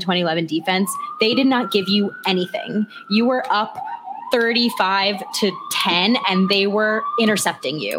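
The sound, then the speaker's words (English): An emergency vehicle siren wails steadily outside in the background, its slow rising and falling tone fairly faint, running beneath a person talking continuously in the foreground. “I'm sorry about the sirens.”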